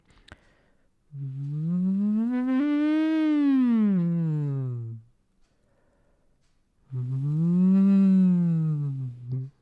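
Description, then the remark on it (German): Two long hummed voice sirens blown through a drinking straw, each sliding smoothly up in pitch and back down, separated by a short pause. Steady and fairly loud, with no talking. “Wir flöten jetzt wie im Blockflötenensemble in den Strohhalm rein. Let's go. Machen kleine Sirenen.”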